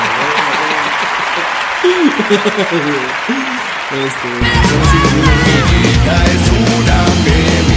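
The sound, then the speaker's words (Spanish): An audience claps steadily for several seconds to welcome back a returning guest, a dense wash of applause with voices shouting and cheering over it, growing louder and fuller about halfway through. “toda la audiencia, vamos a darte otro aplauso porque ya regresaste.”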